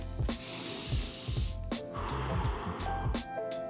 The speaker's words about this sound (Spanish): No se te olvide la respiración. ¿Qué tal? Respírame en estos momentos tres veces. Vamos, juntos.